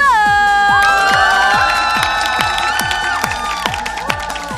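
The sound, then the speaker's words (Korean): A loud crowd at a singing class on the second floor of the village hall in Sangam-ri, Mapo-myeon, cheers and shouts in sustained, rising voices, with steady rhythmic hand claps keeping time underneath throughout. “여러분들의 이 뜨거운 호응 얼마나 감동인지 몰라요.”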